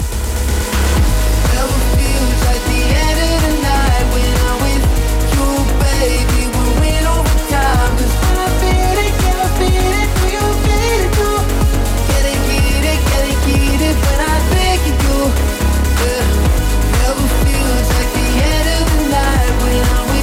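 A loud, driving electronic dance track plays steadily with a pulsing kick drum, layered synth melodies and bright high-end textures, continuous throughout with no voices.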